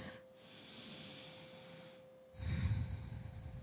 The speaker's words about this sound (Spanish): Y tomando una respiración profunda, al exhalar abrimos nuestros ojos.